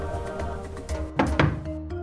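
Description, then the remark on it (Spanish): Two dull, thudding knocks on a village store door, made by flamingos striking it with their feet, spaced a beat apart, rising over a soft, steady tonal hum with no voices. “Y, levantando todos juntos el vuelo, cruzaron el río y fueron a golpear en un almacén del pueblo.”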